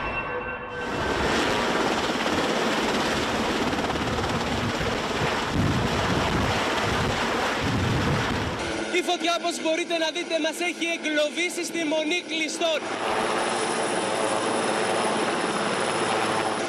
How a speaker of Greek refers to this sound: Από πάνω πετάει ένα σούπερ πούμα για να απεγκλωβίσει και τους τελευταίους που βρίσκονται εδώ σε περίπτωση που η φωτιά πλησιάσει κι άλλο απειλητικά προς τη μονή.